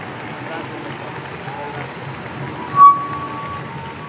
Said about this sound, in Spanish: Dele una ofrenda de palmas al que vive y reina por los siglos de los siglos.